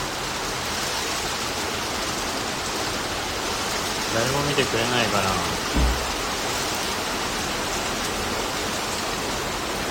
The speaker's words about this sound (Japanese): いや雨降ってきたなんてこったいやすごい雨だこれはすごい